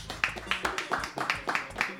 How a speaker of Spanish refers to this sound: Un aplauso para ellos.